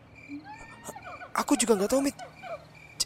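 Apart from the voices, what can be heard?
monkey calls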